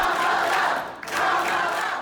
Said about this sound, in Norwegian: Jubel og tilrop da Camilla Harris lanserte seg som presidentkandidat for Demokratene i november